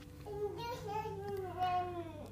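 A baby babbles softly in the background, making gliding, sing-song vocal sounds for a couple of seconds over a low steady hum, with no adult speech.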